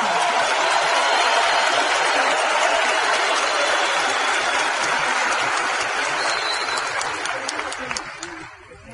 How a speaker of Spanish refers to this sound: Ayúdenme a darle un fuerte merecido aplauso mayor de todos nosotros, entonces a Rich y Ángel, que gracias a ellos estamos acá.